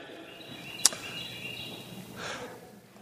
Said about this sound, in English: That must be a phone and not actually a bird in here.